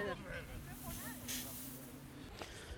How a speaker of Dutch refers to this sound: We lopen nu langs een grote vijver in de regen. Ze hebben het helaas niet getroffen met het weer vandaag.